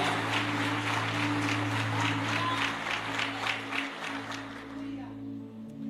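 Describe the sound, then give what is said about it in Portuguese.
A church audience applauds in praise of Jesus with steady, dense clapping over a low sustained hum, the applause gradually thinning and fading out near the end. “Eu não sei quem está crendo nessa palavra, mas se você recebe isso, dá um forte aplauso a Jesus, adore a Ele, celebre a Ele agora.”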